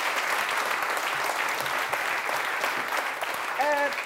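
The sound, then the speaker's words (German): An audience at the Weserstrand claps steadily in a dense, sustained wash of applause lasting several seconds, and near the end a short harmonic tone, like a voice or whistle, rises above it. “Das ist nochmal ein extra Applaus wert.”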